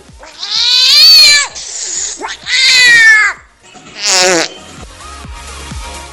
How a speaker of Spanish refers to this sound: Pues nada, os saluda mi gato.